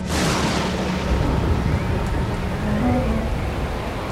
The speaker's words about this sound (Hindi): ऐसी कड़ाके की सर्दी में भी इतनी बरसात हो रही थी कि बाहर साफ साफ कुछ दिख नहीं रहा था